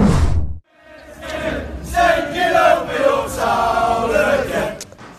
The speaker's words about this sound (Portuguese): Aí a torcida do Manchester City é, cantando Taking Over Your Town Again, né? E é, foi isso mesmo, né? É, dominando a sua cidade mais uma vez.